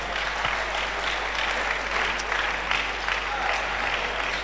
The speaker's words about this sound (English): This your clap, eh? It's not a good clap. And if I were you, I probably would not have been clapping either.